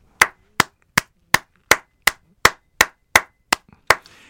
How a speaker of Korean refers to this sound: 그런데 고등학교 3학년이 이런 음악을 안다는 건 여러분 진짜 박수 쳐야 됩니다. 여러분 다 일어나서 박수 쳐야 됩니다. 이거 스탠딩 오베이션이 필요해.